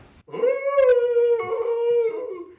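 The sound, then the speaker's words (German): A person imitates a wolf howl in a church in Gothenburg, Sweden: one long, loud, sustained tone that rises at the start, holds steady for about two seconds, then slides down and fades, alone. “Das war das Wolfsgeheul in der, in der Göteborger Kirche”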